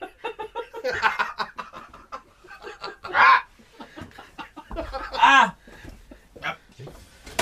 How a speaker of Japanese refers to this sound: アヒルいる